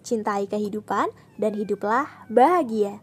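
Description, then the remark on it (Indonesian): A woman speaks steadily while her pet cat meows faintly underneath, a thin, drawn-out high cry partly masked by her voice. “Kalian dengar suara kucingku kan?”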